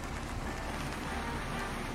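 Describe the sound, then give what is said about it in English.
Heavy rain in a downpour drums steadily on a car driving up the side of a mountain, a dense, constant hiss with a low rumble underneath and no pauses, fairly loud with no one speaking. “But it's a real pain when I'm driving up the side of a mountain in a downpour.”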